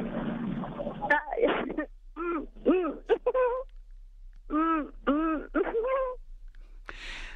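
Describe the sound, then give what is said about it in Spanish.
A person mimics a turkey's gobble with a series of quick, warbling vocal bursts in uneven clusters, fairly loud, followed by a short breathy puff at the end. “Escuchen, por favor, cómo se hace un guajolote.”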